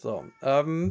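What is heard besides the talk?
cat meowing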